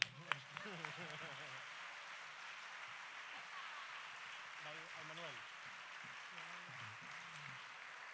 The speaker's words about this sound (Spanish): Pues ¿qué sería este concierto sin, sin esta gente? O sea que será el momento de presentar y para eso pido un fuerte aplauso para